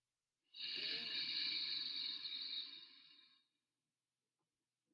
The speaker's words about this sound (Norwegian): Først tar vi en dyp pust inn.